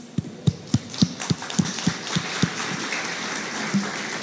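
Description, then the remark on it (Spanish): An audience applauds, steady sharp claps landing in an even rhythm over a wash of scattered clapping, fading slightly toward the end. No one speaks. The applause welcomes the teachers and generation pastors at City Church. “Y bueno, sin más, me gustaría que recibiéramos con un aplauso a nuestros maestros, nuestros pastores de generaciones.”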